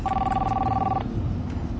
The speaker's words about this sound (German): Da sitzen Männer mit dunklen Anzügen vor ihrem Laptop und dauernd piepst irgendein Telefon. Ein Handy.